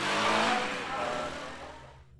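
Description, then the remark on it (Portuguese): A motorcycle carrying two men revs hard and roars off from in front of a bar, the loud, rumbling whine tapering as it speeds away and fades out within a couple of seconds. “Então, o René imediatamente cai no chão sem vida e os dois homens saem varados na moto.”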